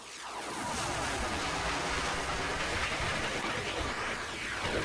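A steady, roaring train sound swept by a swirling phaser effect, its hiss rising and falling in whooshing waves for several seconds with no voices.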